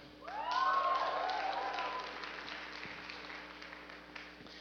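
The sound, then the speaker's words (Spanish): A small audience claps in a scattered, uneven way, only a few people applauding. The applause swells quickly, then thins out and fades over a few seconds, with a faint hum underneath. “Porque ya bien poquitos aplaudieron, porque saben la responsabilidad que significa, ¿verdad?”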